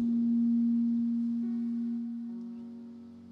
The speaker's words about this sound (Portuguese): Diminui o meu aqui que tá da microfonia.